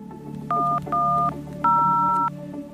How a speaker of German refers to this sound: Gegen 16.30 Uhr ruft Roland Kadi 110 an.